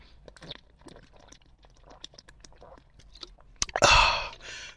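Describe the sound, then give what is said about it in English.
Quiet mouth sounds of someone sipping water: small wet clicks and slurps spread over a few seconds, then a louder breathy rush of air near the end. “Take a sip of water,”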